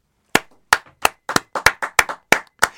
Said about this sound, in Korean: 억지 박수 치지 마요. 아, 정말 진짜.